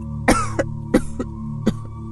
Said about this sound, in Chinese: 他捂着嘴，不停的咳嗽，泪水止不住的流了出来。